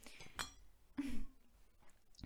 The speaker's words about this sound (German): Und ich trinke jetzt direkt was und du holst jetzt auch ein Glas Wasser.